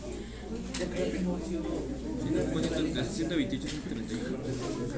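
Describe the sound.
A group of students in a class imitates owl hoots together, a steady overlapping chorus of low cooing hoots sustained throughout, noisy, with murmured talk mixed in.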